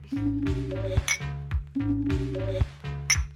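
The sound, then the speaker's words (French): Two bright glass clinks ring out about two seconds apart as glasses are clinked in a toast at the Varia during the Varia Son festival, each over a repeating pattern of low, stepped electronic tones; no voices are heard. “Et on va trinquer.”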